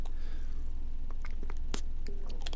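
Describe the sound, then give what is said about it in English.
Soft clicks and faint scraping come at an uneven pace as Kool-Aid drink powder is poured in and stirred into liquid, over a low steady background hum with no one talking. “So I'm pouring the thing in here, the Kool Aid. I'm mixing this up”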